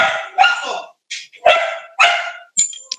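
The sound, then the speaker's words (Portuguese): A small dog yaps repeatedly in quick, high-pitched barks, about five or six sharp bursts over a few seconds, loud, with no one talking. “Já, já, que o cachorrinho está participando,”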